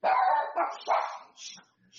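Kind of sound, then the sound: animal, dogs barking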